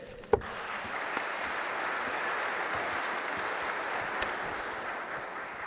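A crowd applauds steadily for several seconds for county executive Chris Abele, a dense wash of clapping that stays at an even level throughout, with a sharp knock near the start and no voices.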